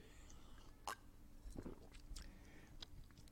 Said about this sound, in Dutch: ik moest even een slokje water drinken.